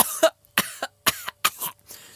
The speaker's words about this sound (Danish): det var da en slem hoste.